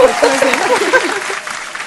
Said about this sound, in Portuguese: É isso, gente. Definição perfeita. Palmas para ele.